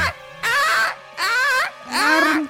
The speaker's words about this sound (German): In dem kompletten Gebäude geht ein Alarm los. Er klingt wie das Schreien einer sehr, sehr ambitionierten, leidenden Frau. Das ist der Alarm. Das ist der Alarm.